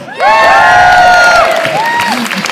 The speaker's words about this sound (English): Uh, but before we do that, can we have a huge cheer of, of appreciation